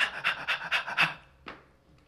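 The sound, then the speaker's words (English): A person imitates a dog panting with its tongue out, with five quick, breathy huffs in a steady rhythm, fairly loud, followed by one softer exhale after a short pause. “The dog was always by the front door, you know, tongue”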